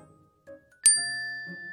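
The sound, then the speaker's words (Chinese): A single bright phone notification ding for a new friend request strikes sharply and rings out with a clear, high tone that sustains to the end, over a faint low hum in the background. “新的好友申请。”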